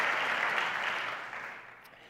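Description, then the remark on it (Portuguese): A church audience applauding together to praise the name of God, a dense steady wash of clapping that gradually fades over a couple of seconds, with no voices standing out. “Vamos aplaudir e louvar o nome do nosso Deus.”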